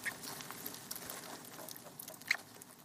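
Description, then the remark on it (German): Rats aboard a ship squeak in sharp, high little bursts, one near the start and another toward the end, over a steady busy rustling and scratching that fills the whole stretch. “Das Fiepen und Rascheln ist so laut, dass einige kaum schlafen können.”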